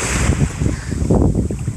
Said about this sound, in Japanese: 今日は海に来ています。ちょっと風が強くて、もしかしたらすごい聞きづらいかもしれないんですけど、ちょっとお試しでどんな感じになるのか撮りたくて撮ってます